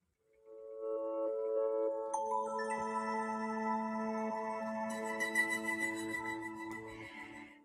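Soft, calm meditation music with sustained shimmering tones and gentle bell-like chimes layering in, steady and quiet throughout with no voices.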